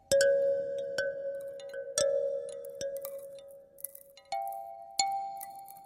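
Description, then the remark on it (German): Ice glockenspiel bars, thin ice plates of different thickness and length hanging on thin strings, struck one at a time, about six clear ringing notes roughly a second apart, each with a bright attack and lingering tone, the pitch shifting upward near the end. No talking. “Wenn man dagegen schlägt, entstehen die verschiedenen Töne. Diese Glockenspiele sind noch recht einfach herzustellen.”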